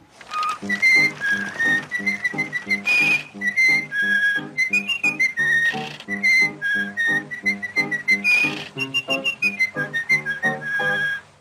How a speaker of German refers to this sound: Und sicherlich habt ihr Mickey Mouse auch schon mal im Vorspann neuerer Animationsfilme pfeifend am Steuer eines Boots gesehen.